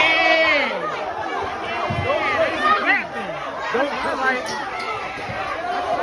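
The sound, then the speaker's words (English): A noisy crowd of about 60 people brawling on a party boat, in its nightclub area: many overlapping voices shouting and yelling at once, dense and agitated throughout, with sharp raised cries and scattered louder outbursts rising above the din. “60 people got into a brawl when a couple of significant others accused each other of cheating in a threesome”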